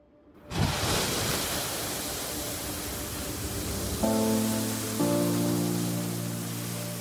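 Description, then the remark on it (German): A geyser in Iceland, a hot spring shooting its water into the air as a fountain, erupts with a sudden loud burst of rushing, hissing water that becomes a steady roar. Partway through, sustained musical tones enter over it. “Was Sie hier hören, ist der Sound eines wahren Naturschauspiels. Ein Geysir, also eine heiße Quelle, die ihr Wasser in Form einer Fontäne förmlich in die Luft schießen lässt.”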